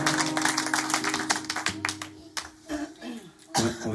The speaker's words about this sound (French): claquer des doigts comme ça, c'est une petite ambiance comme ça, tous ensemble, ça fait comme ça, ça fait.